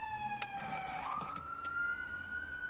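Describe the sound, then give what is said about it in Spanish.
A police patrol car siren wails steadily, its pitch gliding down and then back up as the car passes, with a few sharp clicks and faint traffic rumble underneath. “Ah, sí fue patrulla.”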